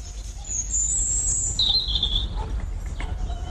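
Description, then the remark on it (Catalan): Birds chirp and sing in high, thin whistling phrases, one long tone followed by a shorter descending call, heard over a low outdoor rumble with no voices. “Sí, els ocells també.”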